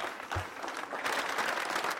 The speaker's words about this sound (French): Voici, on va le voir, hein, les applaudissements hein, qui ont accompagné le départ de celui qui était en poste depuis Mathieu Vallet, depuis 2015.